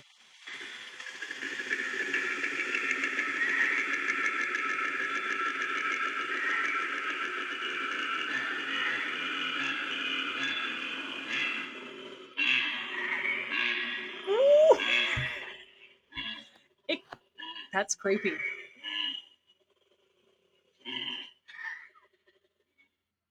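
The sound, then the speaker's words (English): A koala's deep bellowing call: a long, loud, rasping snore-like drone, then a run of choppy belching grunts that trail off, with a brief spoken remark near the end. “That's its deep bellowing.”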